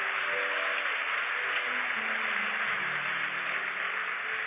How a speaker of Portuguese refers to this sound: Posso ouvir um glória a Deus, um aplauso bem forte a ele aí? É assim que acontece.